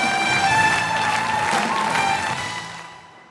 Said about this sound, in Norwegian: Nå kommer hun inn i salen her. og Dere kan høre jubelen som eh, stiger opp her.